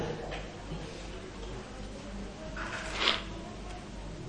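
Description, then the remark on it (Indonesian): Faint plates clinking, a soft clink early on and a brighter, slightly louder one about three seconds in, over a quiet hum with no talking. “Ya, sudah bunyi piring nggak ada yang bertanya.”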